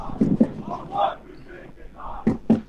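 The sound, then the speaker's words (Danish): A crowd of voices chants loudly in unison, with sharp rhythmic shouted accents near the start and end, like football fans singing a terrace chant in a stadium, here a chant for Rasmus Falk. “Der ja, blev i hvert fald sunget en faldsang her.”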